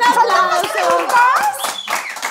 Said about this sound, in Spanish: ¡Un aplauso!